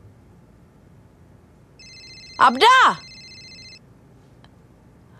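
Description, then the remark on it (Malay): A telephone rings with a steady electronic ringtone for about two seconds at two in the morning, moderately loud, while a voice briefly shouts a name over the middle of it. “jawab telefon tu.”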